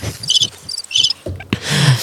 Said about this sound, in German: Jetzt wäre die Zeit für die Grillen.